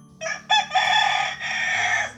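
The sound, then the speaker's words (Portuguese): A rooster crows loudly, a full cock-a-doodle-doo with a couple of short opening bursts followed by a long, sustained harmonic call, with no talking. “O galo cantou, ele veio avisar Está na hora da leitura.”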